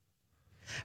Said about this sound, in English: Bless you.